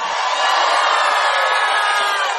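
A large theater audience at the Teatro Auditorium in Mar del Plata shouts together in one loud, sustained collective yell, a dense wall of many voices that holds steady for a couple of seconds without any individual speech.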